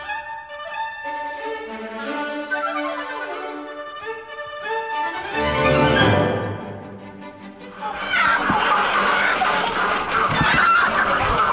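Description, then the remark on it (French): Hens cluck and squawk in overlapping, high-pitched calls while a rooster crows in long, rising-and-falling cries. Toward the end the flock erupts into a loud, dense burst of cackling. “C'est des poules qu'il nous faut.”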